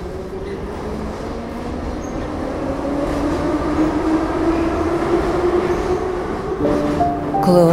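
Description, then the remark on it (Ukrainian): A metro train pulls away after the doors close, heading for the next stop, Prospekt Gagarina station. Its heavy rumble is steady and loud while the electric motor's whine climbs gradually in pitch as it accelerates, with a brief clatter near the end. “Обережно. Двері зачиняються. Наступна зупинка станція проспект Гагаріна.”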